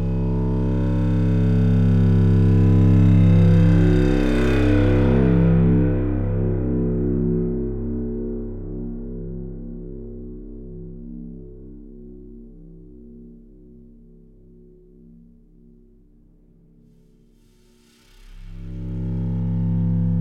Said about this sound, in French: Est-ce qu'on pourrait aller écouter un petit extrait de ça un petit extrait pour nous J'ai un extrait justement d'un solo de tuyau à vous faire écouter.